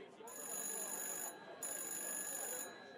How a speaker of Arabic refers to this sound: على ما مرزوق خلص الحكاية التليفون رن تاني